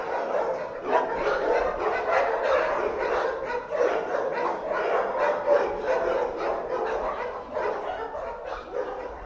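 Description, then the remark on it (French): A dense, continuous chorus of many dogs barking and yelping at once, loud and overlapping, in a square lined with cages and kennel boxes where the dogs wait to be adopted, echoing indoors with no pauses for the whole stretch. “Alors il faut imaginer un carré bordé par des cages, des boxes dans lesquelles les chiens, eh bien oui, attendent leur future famille. Alors attention, c'est bruyant, impossible pour nous de continuer la discussion à l'intérieur.”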